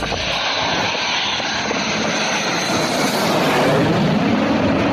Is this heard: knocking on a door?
no